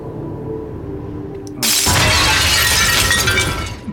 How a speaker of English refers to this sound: cut to the present, and the portal shatters, and Bayonetta's here again.